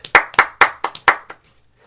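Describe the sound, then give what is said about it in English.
Five or six sharp hand claps in a quick, slightly uneven rhythm, like one person giving a short round of applause, then fading to quiet. No talking. “Because yeah, yeah, applause.”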